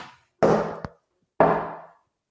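A dog barks twice outside, about a second apart, each bark muffled and slightly drawn out. Nothing else sounds between the barks.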